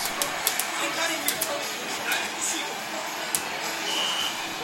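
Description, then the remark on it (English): A busy video arcade din at Tokyo's Akihabara train station: dense electronic noise with scattered sharp clicks and short bright beeps, and a murmur of voices blending into the steady, loud wash of game sounds. “Sarah Peebles caught the action at a video arcade at Tokyo's Akihabara train station.”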